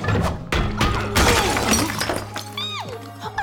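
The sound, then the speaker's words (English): Ice of an ice prison cracks and shatters in a loud, sustained crash of splintering pieces, with sharp bursts and a low rumble underneath, ending in a few high, sliding chimes, in the cartoon Adventure Time as the Ice King throws Finn and Jake inside and the ice breaks. “He throws Finn and Jake inside the prison, and the ice breaks, which frees them into the larger prison with all of the other”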